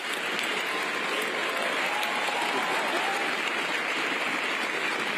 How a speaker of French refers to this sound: Le monde entier applaudit et se lève pour un accord historique.